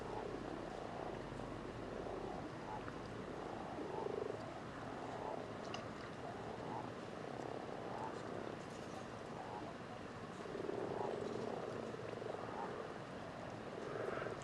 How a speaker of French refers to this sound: et ce soir, pas un souffle de vent, et la lune qui éclaire, la lune qui éclaire la montagne, qui se découpe juste au-dessus de l'étang. Ce soir, c'est la, grande fête des crapauds communs et des grenouilles rousses.